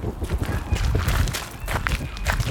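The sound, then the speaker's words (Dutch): Steady footsteps of people walking outdoors toward Concourslaan with coffee in hand, a continuous shuffle of steps with faint ambient noise and occasional brief voice-like sounds in the background. “Nou, met koffie in de hand lopen we richting Concourslaan.”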